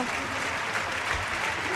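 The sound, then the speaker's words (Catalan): A large crowd at Camp Nou applauds steadily as Aitana leaves the pitch with a groin problem during a Champions League match, a dense, continuous wash of clapping that holds at an even level from start to finish without breaks. “Surt aplaudida pel Camp Nou, entrarà Geise i sentíem crits d'Alexia, Alexia, la graderia del Camp Nou.”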